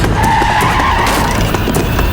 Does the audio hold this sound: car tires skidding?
yes